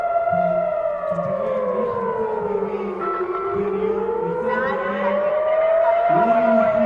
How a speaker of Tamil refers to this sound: rockets காசாலேருந்து வரும்போது சைரன்கள் இப்படி தான் ஒலிக்கும் மக்கள் பாதுகாப்பு இடங்களை நோக்கி போகிறாங்க